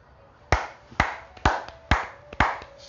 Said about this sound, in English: Golf clap.